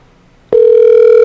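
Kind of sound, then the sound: signal or alarm, telephone dial tone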